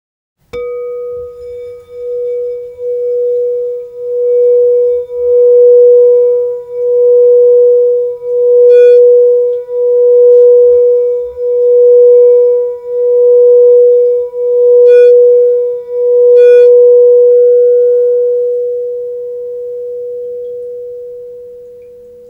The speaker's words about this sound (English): Now let's tune into these tones together. This is the crown chakra tone, B.